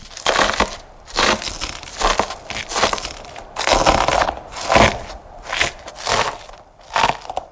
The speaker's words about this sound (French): Le son de nos pas sur cette énorme croûte de sel, ces minuscules particules de sel séchées au soleil se brisant sous le poids de nos corps.